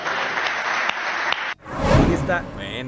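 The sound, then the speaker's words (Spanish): Dense, sustained applause from a large crowd for a former Mexican president after his speech fills the first half, then cuts off abruptly and a man's voice begins speaking. “y ahí está el aplauso cerrado.”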